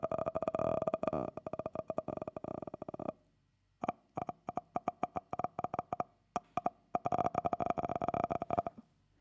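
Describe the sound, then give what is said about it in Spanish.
A voice makes a loud creaking, croaking mouth noise imitating a squeaky, stiff door slowly opening, drawn out in a long rasp, a pause, then a series of stuttering clicks and another sustained creak. “Es un ruido que suena como, como si abrieran una puerta y estuviera muy, ¿saben?”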